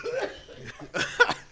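A person in the corner vomits, retching and gagging in harsh, throaty heaves, one short burst and then a stronger double heave, with no talking.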